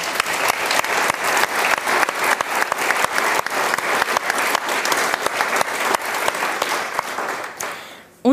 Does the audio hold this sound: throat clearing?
no